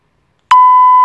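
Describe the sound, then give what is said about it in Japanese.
A single steady electronic beep sound effect, played by mistake instead of an applause sound, holds one pure mid-high tone for about half a second, loud and clean, with brief clicks at its start and end and silence before it. “ピーになっちゃった。”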